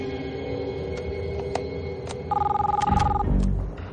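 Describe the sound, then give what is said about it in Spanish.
A telephone rings once as a call comes in for Jack, a rapid, trilling electronic burst lasting about a second, bright and fairly loud over a steady, busy background hum with occasional clicks. “Mientras, llaman a Jack por teléfono.”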